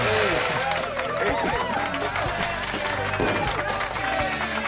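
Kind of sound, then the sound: crowd, standing ovation applause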